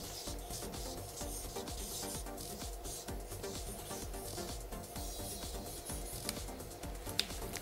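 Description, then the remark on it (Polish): Steady scratchy rubbing of a pen writing a person's name on a paper card, a continuous soft rasp with small irregular strokes and a couple of faint taps near the end, no voices. “Ja napiszę, znaczy ty musisz napisać po prostu, jak on się nazywał”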